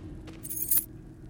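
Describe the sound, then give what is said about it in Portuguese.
A bunch of keys falls to the floor after an old man angrily kicks a door, jangling briefly in a short burst of bright metallic clinking that settles within a second, over a steady low background rumble. “O velho chuta a porta com raiva e ouve o barulho das chaves que caem no chão.”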